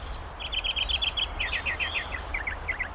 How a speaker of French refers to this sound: Imaginez, en pleine nature, l'oiseau qu'on entend en ce moment, c'est le moqueur polyglotte, il y en a des fois au Québec